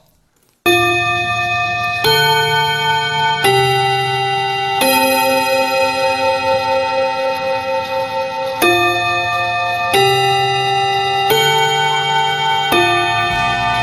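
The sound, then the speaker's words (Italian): A Japanese school bell, the kind heard every day in Japanese schools and in anime, plays the Westminster chime: a slow sequence of bright, ringing tones, each struck note sustaining with rich overtones as the melody steps along, with no voices. “Questa, questa, è di fatto la vera campanella che sentiamo negli anime e che anche davvero nelle scuole giapponesi si, si ascolta tutti i giorni.”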